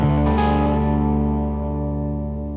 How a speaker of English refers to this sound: The album begins with a few seconds of string scratching, whining feedback, and fuzzy distortion, like some sort of fucked up transistor radio trying to tune into a station